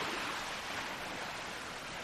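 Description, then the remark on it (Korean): A steady, broad wash of surf as ocean waves roll onto a shore, heard while walking along the coast, holding an even level throughout with no voices or other sounds. “그러고 나서 우리는 다시 보트하우스로 갈 때가 되었음을 깨닫고 파도 소리를 들으며 해안가를 따라 걷는다.”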